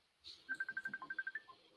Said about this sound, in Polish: Jest telefon, Piotrek dzwoni.